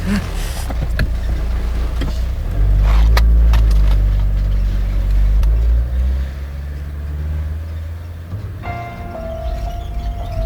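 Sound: car driving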